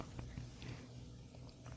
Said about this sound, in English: Okay. We're eating blueberries. Yeah, I'm gonna stop chewing